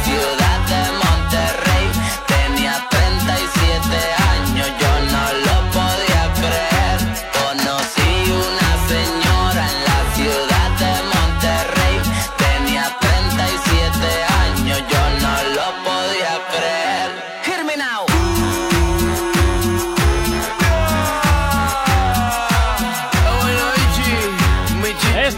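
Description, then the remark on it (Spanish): A loud, upbeat new song plays on the radio station Activate FM, with a steady thumping beat and dense layered instruments. Around the middle the bass drops out briefly for a short breakdown before the full beat returns. “que suena es la novedad, una de las novedades,”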